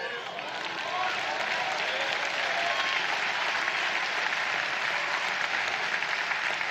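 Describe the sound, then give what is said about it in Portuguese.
A church audience claps together in sustained, dense applause, a steady wash of many hands at an even loudness for several seconds with no voices standing out. “Será que você pode aplaudir?”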